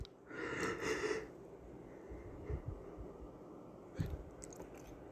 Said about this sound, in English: And there's that yawn. Boy, I could go to sleep